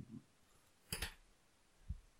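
A short, crisp rustle-click of a notepad page being flipped, a quick double snap heard alone, followed by a soft low thump a moment later.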